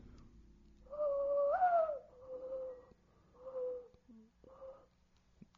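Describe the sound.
A person imitates a dove's cooing with a series of soft, hollow hoots: one long note that lifts in pitch, followed by three shorter coos, fairly quiet.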